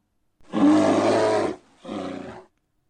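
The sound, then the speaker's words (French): A dragon roars twice, a long, loud, rumbling bellow followed after a brief pause by a shorter, slightly weaker growl, with no voices around it. “On dirait qu'il a jamais vu de dragon.”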